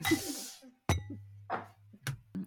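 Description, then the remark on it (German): Glasses clink together a few times in a toast, sharp bright taps with a short ringing tail, mixed with soft rustling and breathy noise between them. “Prost. Klingeling.”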